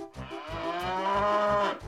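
A cow moos loudly in one long, drawn-out bellow lasting about two seconds, steady and resonant with a slight rise toward the end, and no voices alongside it.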